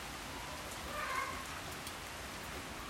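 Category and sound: nature, rain falling outside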